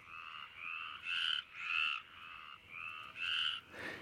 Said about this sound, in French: Rauques étaient les voix des rainettes le soir, là où l'eau du bassin coulant sans bruit brillait dans l'herbe.